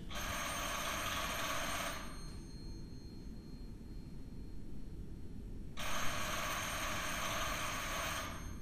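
A loud telephone bell rings in two long bursts separated by a pause of a few seconds, with a steady low rumble continuing underneath throughout.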